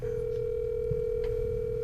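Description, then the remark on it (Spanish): A phone ringing on an outgoing call to a cousin: one steady, unbroken electronic tone at a single mid pitch, held at even loudness for the whole moment over a low background hum, with no voices. “Cuando da tres timbres y no contesta, me preocupa.”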